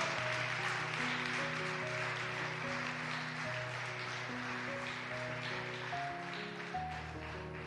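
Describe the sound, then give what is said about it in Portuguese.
A large audience claps steadily throughout, giving applause to Christ, a dense crackling wash of applause, while sustained organ or keyboard chords shift underneath. No one speaks. “que não dar um aplauso a esse Cristo maravilhoso que cumpriu todo o que haviam dito sobre Ele.”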